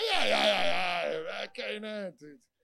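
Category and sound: vocal imitation, voice imitating snoring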